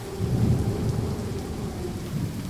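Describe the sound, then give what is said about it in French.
A thunderstorm with steady rain, a deep rolling rumble of thunder swelling beneath the constant patter of falling water, fairly loud and continuous, with no voices. “Aujourd'hui encore, ils ont prévu une tempête.”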